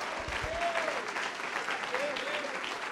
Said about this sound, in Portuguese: Vamos aplaudir mais ao nome do Senhor por cada vida que está chegando.